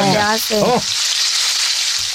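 Steady sizzling of garnachas frying in hot oil as a woman sells fried food indoors, a continuous crackling hiss that runs the whole time, with a brief voice heard over it at the start.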